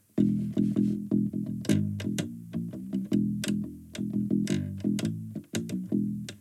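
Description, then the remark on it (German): A driving, distorted surf-style riff played on electric guitar with rapid picked notes in a steady rhythm, loud, with no voices over it. “Das, dieser Sound, der erinnert mich immer an Pulp Fiction.”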